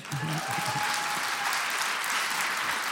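A large audience claps steadily, the dense patter of many hands filling the whole three seconds at an even, fairly loud level, with a faint voice murmuring at the very start.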